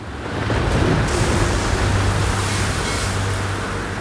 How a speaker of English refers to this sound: Winds blowing hard.